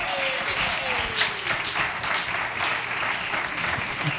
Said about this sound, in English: Congratulations. round of applause for our winners.